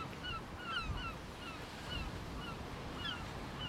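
Steady wash of sea waves and gusting wind at the shoreline on a cold July day, a constant rumbling roar with faint, repeated bird chirps and no voices.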